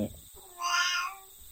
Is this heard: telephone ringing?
no